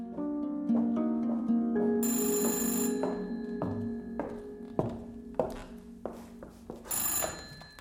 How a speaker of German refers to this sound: Und jetzt klingelt hier bei Gila das Telefon.